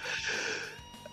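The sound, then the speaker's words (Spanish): A single sneeze: a breathy, hissing burst that holds for about half a second, then trails off into quieter breath noise. No one speaks. “¡Jesús!”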